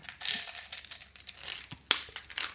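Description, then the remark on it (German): Crinkling of a packet of Vivil Mint candies, bought at a Rewe checkout, being handled: a steady run of crisp, bright rustles and crackles with one sharper snap near the end, heard on its own with no talking. “Aber sobald dir jemand anfängt, hier so Zuckerkügelchen, guck mal, ich habe hier ein paar, habe ich an der Rewe-Kasse gekauft. Vivil Mint, die helfen gegen Corona.”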